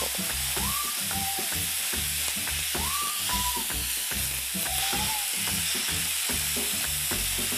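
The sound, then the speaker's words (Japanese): Enoki mushrooms stir-frying in butter with a little water added, loosened with chopsticks: a steady, loud sizzling hiss with irregular clacks and scrapes of stirring, plus a few brief high squeaks. No one speaks. “ちょっとの水でいいです入れすぎると失敗しますのでほんのちょっと入れてくださいでお箸でほぐしながら炒めていきましょ”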